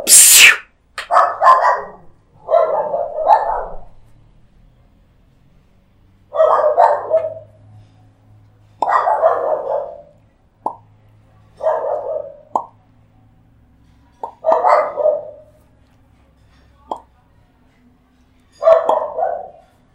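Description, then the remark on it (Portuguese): A pack of dogs barking in short, irregular bursts, sometimes doubled, with brief pauses between them, clear, with no one talking. “cachorrada, viu?”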